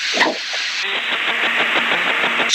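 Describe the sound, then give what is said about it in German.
Loud, steady roaring hiss of car interior noise heard over a phone line from a caller sitting in a car with the phone held normally to the ear, with a faint rhythmic low thumping underneath, filling the whole stretch without pause. “am Kochen bist. So klingt das. Was machst du denn? Nicht, ich sitze im Auto. Ach so, du fährst. Es ist wahnsinnig laut”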